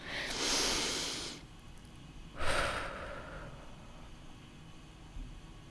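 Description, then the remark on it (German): Two deep, audible breaths: a long airy inhale followed by a shorter, sharper exhale, then quiet room tone. “Atmen, atmen, atmen, atmen.”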